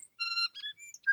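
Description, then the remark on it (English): A tui sitting on a flax flower outside a window early in the morning sings a quick run of clear, ringing whistled notes broken by a brief raspy flutter, fairly loud, with no other sounds around it. “What's that bird out there? Helia, his mother, looked out the window. Why, that's a tui.”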